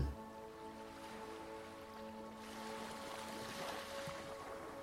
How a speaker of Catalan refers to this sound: el so de la remor del mar, de les onades trencant a la platja.